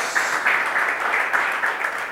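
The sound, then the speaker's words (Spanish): A standing audience applauds the Lord with steady, dense clapping throughout, its texture swelling in faint regular pulses as if some hands fall into a rhythm. No voices stand out. “Pero bueno, ¿qué les parece si nos ponemos de pie y vamos a darle un aplauso al Señor que fue el que nos guió siempre?”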